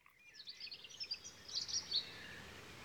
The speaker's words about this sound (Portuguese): Eram os passarinhos ensaiando as cantorias.